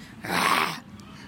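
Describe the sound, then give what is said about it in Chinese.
A bear gives one loud, rough roar lasting about half a second, raspy and breathy with a growling edge, then cuts off abruptly. No one speaks. “就在危急时，一声洪亮的吼声响彻了云霄。”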